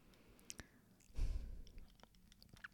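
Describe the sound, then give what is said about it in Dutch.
A quiet swallow: a soft low gulp in the middle, surrounded by faint mouth clicks and wet smacking sounds, with no talking. “Ja, sorry, ik moet even van slikken ook.”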